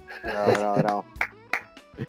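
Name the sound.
hand clapping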